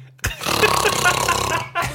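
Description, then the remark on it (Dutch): A voice imitates loud snoring: one long, raspy, rattling snore lasting more than a second, then a short pause and the start of another. “En die wist dat hij keihard snurkt.”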